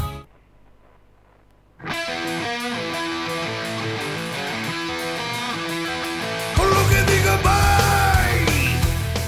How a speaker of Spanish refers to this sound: Ese, ese grito que, bueno, pertenece a una transformación simbiótica que le ocurre a esta persona.